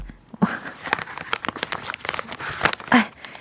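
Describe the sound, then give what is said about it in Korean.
Wet wipes being pulled by hand one sheet at a time out of their plastic pack: a steady run of crinkly, crackling rustles with several sharp snaps and a louder swishing pull near the end, with no voices. “이거를 뚜껑 열어놔서 물기 다 날아가면 이게 물이 없는 그냥 티슈가 되는 거거든요.”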